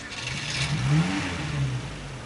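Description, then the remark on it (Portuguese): A heavy truck engine revs up with a rising, throaty growl as the truck sets off for Paris, then eases back to a steady rumble, fairly loud with no talking over it. “Ora bem, cá vai o Amilcar até Paris, neste caminhão,”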